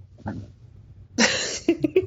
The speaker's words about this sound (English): She was sneezing.